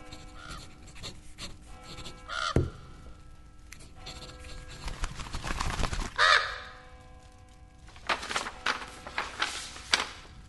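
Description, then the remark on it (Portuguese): A crow caws a few times, harsh, with scattered rustling and scraping noises around the calls and no one speaking. “O corvo trouxe mensagens.”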